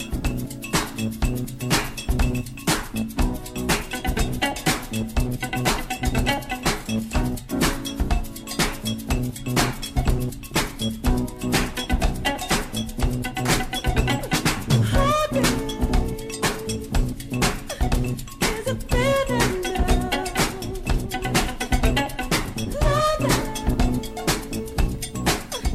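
A funky song demo driven by a prominent, bouncy bass line, with bright percussive clinks and tapping over a steady groove and some melodic vocal-like swoops, no speech.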